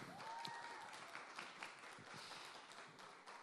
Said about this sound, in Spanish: Traes fuerte el aplauso